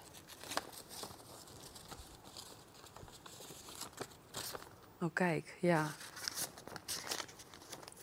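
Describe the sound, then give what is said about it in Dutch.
Crinkling and rustling of handwritten paper letters, some on yellow paper, being handled and shuffled, with scattered crisp bursts throughout and a brief spoken exclamation partway through. “Ik weet dat het een van de gele is. Een van de gele. Ja, nou. er zijn twee gele brieven bij.”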